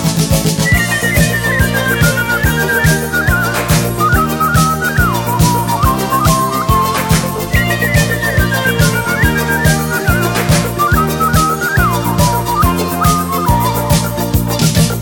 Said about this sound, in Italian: Se la tua donna ti vuole lasciare con un fischio fa riva bella biondina prova a farle qualche fischiatina.